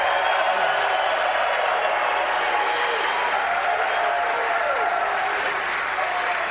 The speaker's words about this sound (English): You're just applauding for me because I look like Butkus.